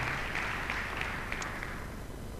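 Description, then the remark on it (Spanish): A crowd applauds steadily for the Lord, a dense wash of many hands clapping with a few sharper claps standing out, fairly quiet and without any talking. “Dar un aplauso al Señor si crees que Él es el que va a hacer la obra en tu corazón.”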